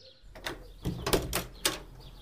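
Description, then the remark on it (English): The front door of Deep Dene House opens, opened by the housekeeper, with a quick sequence of clicks and rattling knocks, three or four sharp bursts, over a quiet low hum and faint birdlike chirps in the background. “A moment later, the door opened, and the housekeeper stood in front of them.”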